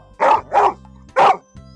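Three loud dog barks, two in quick succession followed by a brief pause and a third, with faint low background hum and no talking.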